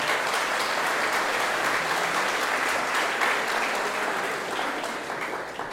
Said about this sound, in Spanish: Un fuerte aplauso para la gente que hace freestyle aquí en Perú, por favor. Un fuerte aplauso, un fuerte aplauso.